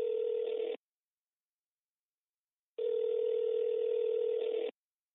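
An electronic telephone ring sounds in two steady, buzzy bursts separated by about two seconds of silence, clear, with no one speaking; a phone ringing at home in the morning in Odesa, Ukraine.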